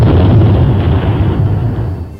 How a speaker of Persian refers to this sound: در پی انفجار بمب از سوی عوامل داخلی آمریکای جنایتکار در خیابان ناصر خسرو